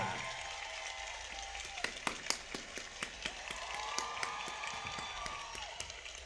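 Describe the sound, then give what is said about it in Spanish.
An audience applauds steadily as a streamer and actress is welcomed as a guest, many hands clapping together into a dense, crackling wash, with a few sharper individual claps standing out and faint cheering mixed in. “Un aplauso muy fuerte para”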